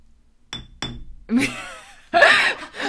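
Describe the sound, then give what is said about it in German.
Two bright, ringing clinks of glass striking glass in quick succession, followed by a louder, brief clattering jangle. “Haben wir dann Glas an Glas gehauen.”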